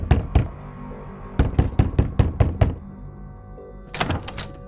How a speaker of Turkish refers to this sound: Öğleden sonra iki gibi evlerinin kapısı çaldı.